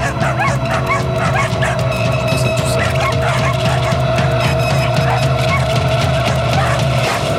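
Several dogs bark and yip steadily, with occasional whimpers mixed into a dense, continuous chorus that stays loud from start to finish, with no talking.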